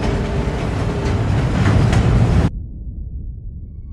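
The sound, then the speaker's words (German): A deafening, thunderous rumble as a whole collapsing floor of the World Trade Center's South Tower falls and splits the Marriott World Trade Center hotel in two swells for about two seconds, then cuts off abruptly, leaving only a low rumble behind. No voices. “Einen Sekundenbruchteil später spaltet ein ganzes herabstürzendes Stockwerk des Südturms das Marriott World Trade Center in zwei Teile.”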